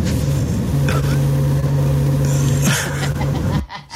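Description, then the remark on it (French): A loud stomach gurgling, amplified for listeners: a continuous low rumble with a steady hum and bubbling texture, lasting several seconds before dropping off abruptly near the end. “Parce que, son estomac qui gargouille.”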